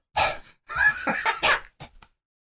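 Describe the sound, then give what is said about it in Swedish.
A voice imitates the heavy, effortful panting of someone jogging around the government building during a Teams meeting, several quick breathy gasps and huffs in a row, fairly loud, fading into a couple of short puffs at the end. “Tror du att Ulf är någon som tränar fram, alltså under mötet? Mm. Jag tror det. Man hör bara så här.”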